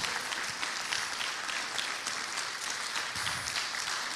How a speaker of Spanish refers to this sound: Ah, qué lindo, le palmas al Señor, hermano. Gloria a Dios.